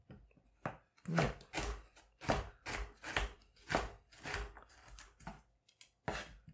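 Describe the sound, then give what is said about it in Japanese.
A knife chops carrots on a cutting board, about a dozen crisp, firm thuds in a fairly steady rhythm, with short pauses between strokes and no one talking. “これね、今、人参切ってます。”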